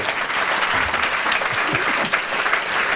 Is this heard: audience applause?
yes